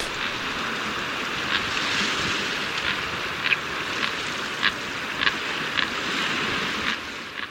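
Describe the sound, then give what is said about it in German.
A Magellanic flightless steamer duck gives a series of short, sharp calls, roughly one or two per second, over steady, rushing coastal surf; the surf dominates throughout and the calls stay fairly faint. “Also wegfliegen können, wenn gejagt wird oder überhaupt rumzuziehen, dahin, wo es besser ist und so weiter, um sich ernähren zu können, ist die Magellan-Dampfschiffente ein standorttreuer Vogel in Südchile, also Feuerland.”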